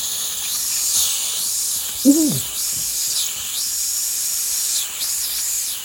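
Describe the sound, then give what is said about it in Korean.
A voice imitates a chorus of many cicadas, farther off rather than on a nearby tree, their wing sounds overlapping: a steady high hissing buzz that swells and fades in overlapping waves, with a brief low vocal sound breaking in partway through. “이게 매미가 가까이에 있는 나무가 아니라 네, 좀, 좀 멀리 좀 많아. 많아서 겹쳤어, 그 날개 소리가.”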